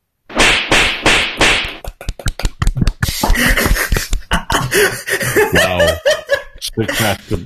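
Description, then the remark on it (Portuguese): Loud whip cracks ring out, three long lashing swishes followed by a quick volley of sharp snapping cracks, then voices chatter and laugh over the continuing smacks. “É, é chicote para baixo.”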